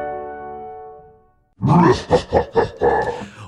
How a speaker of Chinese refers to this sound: 哦，原来是年兽叫的声音。